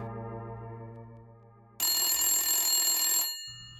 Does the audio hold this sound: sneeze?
no